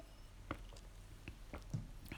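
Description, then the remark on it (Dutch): Quiet sipping and swallowing of water: a few soft wet clicks and small gulps spaced irregularly over a couple of seconds, with no talking. “Ik ga even een slokje water nemen.”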